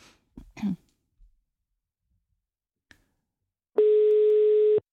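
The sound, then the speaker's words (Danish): A few brief throat-clearing sounds, then quiet, then a loud, steady electronic phone tone, like a busy signal, as a phone call to a Member of the European Parliament is hung up; the tone holds for about a second and cuts off abruptly. “Der blev lagt på der.”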